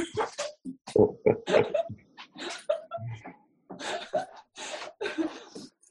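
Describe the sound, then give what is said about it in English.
A female dog whines and fusses, letting out a string of short, uneven yelps and whimpers with brief pauses between them, fairly loud and continuing for several seconds. “my dog doesn't like it when I'm sad.”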